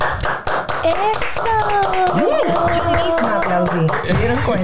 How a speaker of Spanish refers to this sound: Y con un fuerte aplauso recibimos en esta edición de Más de Dos Podcasts